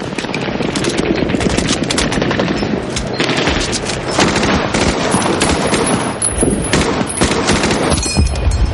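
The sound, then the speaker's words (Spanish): Heavy gunfire crackles nonstop as soldiers behind sandbags fire across a river, with rapid automatic bursts and overlapping shots forming a loud, dense barrage that keeps going for the whole stretch without a pause. “Recargan apresuradamente y disparan al otro lado del río.”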